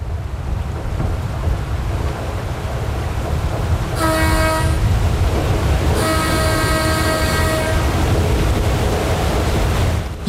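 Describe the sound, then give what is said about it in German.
The propeller of an electric passenger ship in German-speaking Switzerland, departing on its first scheduled run with an electric motor instead of a diesel engine, churns water in a steady, loud low rumble, with two long horn blasts sounding over it partway through; no one speaks. “Ja, den Schiffspropeller mit dem Wasser hört man natürlich.”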